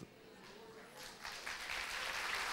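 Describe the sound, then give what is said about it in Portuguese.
A church audience bursts into applause giving glory to God, the clapping swelling from a scattered start into a dense, steady roar that grows louder toward the end, with faint voices mixed in. “Se é para aplaudir, faça com todas as suas forças.”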